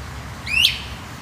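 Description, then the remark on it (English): A great crested flycatcher gives a single sharp, rising whistled call, clear, over a low, steady outdoor background hum, in a yard. “It's a great crested flycatcher.”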